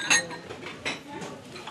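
Dishes clink and crash, with a bright, sharp shattering hit right at the start, a second crisp clatter a moment later, and lighter rattling in between.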